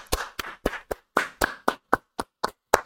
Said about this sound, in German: Bro, erstmal ein fettes, fettes Dankeschön und einen großen Applaus für dich.